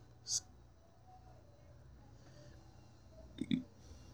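A short, low burp erupts near the end, moderately loud, after a brief sharp click early on over a quiet, faint hiss.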